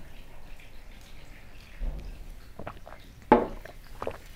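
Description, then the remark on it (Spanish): Someone takes a few quiet sips of water, with soft wet mouth sounds, a swallow and a brief clink near the end, with no talking. “voy a beber un poquito de agua.”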